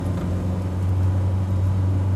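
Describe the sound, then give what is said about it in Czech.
A car's steady engine hum and road rumble from inside the vehicle as it drives slowly into the quiet platinum-mining town of Rustenburg, about an hour's drive from Johannesburg, South Africa; a continuous low drone with no voices. “Asi hodinu autem od Johannesburgu leží město Rastenberg, kde se těží platina – Pomalu do tohoto hornického města přijíždím a oproti Johannesburgu je tu nezvyklý klid.”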